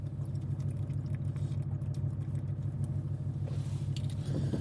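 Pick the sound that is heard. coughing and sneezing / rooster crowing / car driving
car driving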